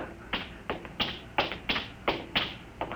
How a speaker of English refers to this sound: I hear somebody coming.